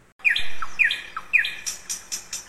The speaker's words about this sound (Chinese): 哇，小朋友们听听看，Bear 现在抱着的是什么呢？Yes, it's a little bird。没错，现在熊熊抱的呢是一只小鸟。